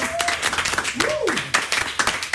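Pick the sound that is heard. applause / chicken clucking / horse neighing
applause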